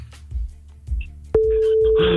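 After some low, muffled rumbling and handling noise, a loud, steady telephone busy tone cuts in abruptly as the call is cut off and holds to the end, joined by a hiss of static near the close.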